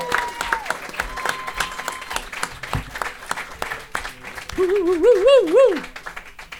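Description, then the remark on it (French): Steady, dense applause from a crowd welcoming a guest doctor, with many hands clapping throughout, and a loud wavering whoop of cheering rising over the clapping near the end. “Alors, mesdames et messieurs, on l'accueille comme il se doit.”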